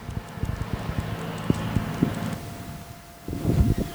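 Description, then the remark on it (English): A street sweeper truck slowly sweeping the street outside rumbles steadily as it passes, its low engine drone mixed with a thin mechanical whine and uneven scraping thumps, with no one talking. “So sorry, we had to pause for a minute because a, a noise outside, which I thought was just a truck, turned out to be a truck that was sweeping, Slow, slowly sweeping the street.”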